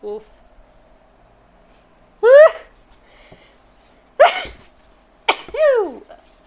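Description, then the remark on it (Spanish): Two sharp, voiced gasping breaths a couple of seconds apart build up to a loud sneeze near the end, with quiet background in between. “espera, voy a estornudar.”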